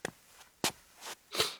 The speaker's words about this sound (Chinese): 恰在这时，身后传来脚步声，转头一看，是孔玉德走了进来，肩上还缠着绷带。